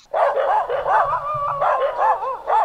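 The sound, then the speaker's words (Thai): A stray street dog barks and yelps in a rapid, unbroken run of high, whining cries, loud and steady for a few seconds with no one speaking. “มันก็เป็นหนึ่งในการปรับตัวของสัตว์พื้นเมืองที่เราเรียกว่า หมาจรจัดหมาข้างถนนเข้ากับเครื่องไม้เครื่องมือของคนก็คือร้านสะดวกซื้อครับ”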